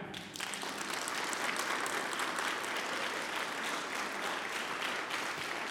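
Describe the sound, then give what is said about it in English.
An audience claps together at the preacher's request during a church sermon, a dense, steady wash of many hands that starts abruptly and holds at an even, fairly loud level for several seconds, with no voices standing out. “Everybody clap.”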